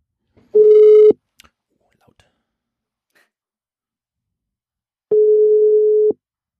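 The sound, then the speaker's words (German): A phone line ringback tone of an outgoing call: two steady, loud, one-second beeps separated by about four seconds of silence, with a few faint clicks in between and no talking. “Äh, wir rufen an, wir wissen, also ich weiß wo und ich weiß auch, wen wir anrufen, aber wir sagen hier weder, wo wir anrufen, noch wen wir anrufen”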